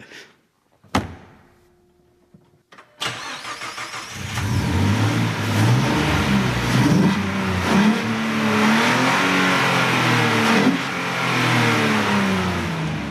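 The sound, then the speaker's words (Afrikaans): A car door slams, then the engine of a classic British collector's car cranks and fires up, settling into a loud, throaty idle with repeated revs rising and falling. “so 'n bietjie gesels het oor sy liefde vir motors in hierdie spesiale Britse versamelstuk. Kom ons het hom gewaan.”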